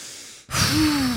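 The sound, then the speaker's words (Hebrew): A deep breath: an airy inhale, a split-second pause, then a louder voiced exhale like a sigh, heard on its own with no talking. “אה, קחי נשימה. לקחתי.”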